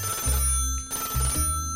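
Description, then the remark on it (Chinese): An intercom phone in a security guard room rings loudly in two electronic bursts separated by a short gap, a harsh, buzzy tone with a steady ringing pattern and no voices. “对讲机突然铃铃铃的响了起来。这个电话声啊，真的是太大声、太吵了，把沉睡中的黑喵都吵醒了。”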